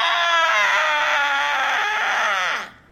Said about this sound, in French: Poussez un long cri.